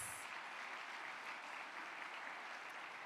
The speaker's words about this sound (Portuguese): Pode aplaudir o nome do Senhor mais uma vez.